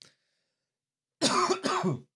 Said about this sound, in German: Oh, jetzt muss ich wegen dem Teddy Twister, äh, musste ich jetzt husten. Weil du deine Stimme verzogen hast.